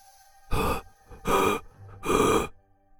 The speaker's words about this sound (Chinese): 不过，金刚狼大口喘气。